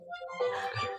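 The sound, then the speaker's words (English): A short, bright electronic jingle plays as a prize wheel is spun: a string of chiming musical tones that swells into a busy, sparkling burst of notes, like a spinning prize wheel sound effect, with no talking. “I actually worked on trying to get this wheel to spin out loud.”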